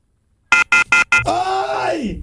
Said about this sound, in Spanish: Le cerraron el teléfono.